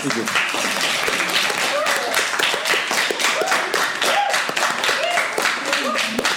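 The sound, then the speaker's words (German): An audience claps steadily for several seconds at the end of the event, a dense, sustained patter of many hands, with scattered voices and a few calls rising faintly through the applause. “Ja, ihr dürft klatschen. Jetzt am Ende.”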